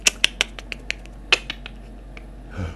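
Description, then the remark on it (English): A voice imitates bat echolocation with a rapid, irregular run of about ten sharp, crisp tongue clicks that start loud and grow fainter, ending with a brief soft rustle. “And so they went down the creaky stairs and the bat stopped and did some more clicking.”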